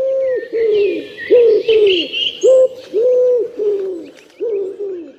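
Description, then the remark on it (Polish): A wood pigeon coos in a steady rhythmic series of soft, hollow, mid-pitched notes, clear, with fainter higher bird chirps in the background. “Znaczy grzywacze, powiedzmy gołębie oczywiście, to jest tak, one mają 2-3 lęgi w roku, tylko tego pisklaka ostatniego, prawda, wysiedzą, to one stworzą takie stada i przemieszczają się w takie miejsca, gdzie mają więcej żeru.”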